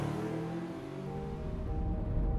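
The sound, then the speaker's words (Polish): A car engine hums steadily and fairly loud, its low rumble building toward the end as a man gets in and drives off toward a café. No voices are heard. “Wsiadł w samochód i pojechał w kierunku kawiarni.”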